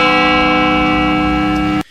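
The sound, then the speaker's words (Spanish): A loud bell rings with a rich, sustained tone full of overtones, holding steady for almost two seconds before cutting off abruptly. No one speaks over it. “Y efectivamente es una campana, así que lo borramos.”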